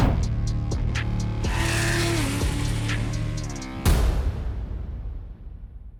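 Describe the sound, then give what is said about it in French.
A high-powered modified car engine of about 1300 horsepower screams as it accelerates hard through several rapid gear shifts, ending in a sharp bang before the roar fades away. No one speaks. “Donc c'est ça que ça fait 1300 bourrins.”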